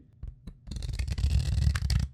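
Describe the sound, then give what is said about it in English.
A deck of cards being shuffled: a few soft taps, then a dense, continuous riffling flutter lasting over a second, crisp and fairly loud, with no voices. “There's something so it, satisfying about shuffling”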